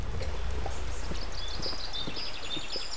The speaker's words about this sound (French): Juché sur son fidèle cheval bucéphale, il dégaine soudain son épée, galope le long de la première ligne de son armée